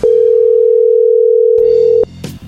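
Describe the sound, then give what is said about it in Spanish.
A steady, single-pitch telephone tone holds loud and unbroken for about two seconds, then cuts off, followed by brief line clicks and faint noise as the call connects. “A ver, ya entró la llamada.”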